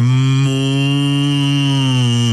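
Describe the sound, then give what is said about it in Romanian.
A person imitates a calf's moo with one long, loud, steady "uuu" vowel sound, held for a couple of seconds with no other speech. “practic, vorbesc aproximativ doar cu litera U.”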